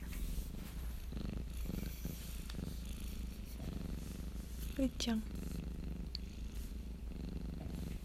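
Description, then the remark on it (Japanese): A domestic cat, one of three sibling cats kept by its owner, purrs with a steady low rumbling that runs through the whole clip while a person speaks softly and briefly over it. “なんかちょっとゴロゴロ言ってるんですけど聞こえますかね”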